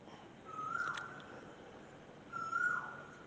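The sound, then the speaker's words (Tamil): Two clear, rising whistled calls of an Asian koel at dawn, around five in the morning, spaced about two seconds apart over a quiet, steady background hiss. “குயிலுடைய கோல்”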